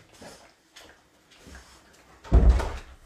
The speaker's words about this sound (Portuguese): Chegou o Duque e ele já começa a bater na porta e chorar aqui. Eu não consigo deixar ele chorando.